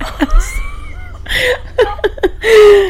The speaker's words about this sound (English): I don't even know if you heard my cat. I don't even know if the mics picked up my cat.